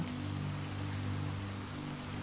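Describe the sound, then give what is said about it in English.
Steady, even rain of a night storm at Lookout Manor hisses across the whole clip at a constant moderate level, with a low droning hum underneath and no voices. “Rainy Story for Sleep | Stormy Night at Lookout Manor”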